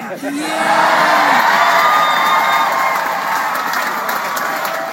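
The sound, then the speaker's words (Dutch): A large crowd cheers loudly and steadily for five seconds at the word "plan" in an Elizabeth Warren speech, a dense roar of many voices with scattered whoops and shouts rising above it, staying strong throughout. “Ik heb nog nooit mensen zo hard horen juichen bij het woord plan.”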